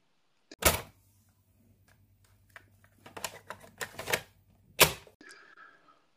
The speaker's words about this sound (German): Ich mache die Kassette wieder auf und zu und klacker wieder und los geht's.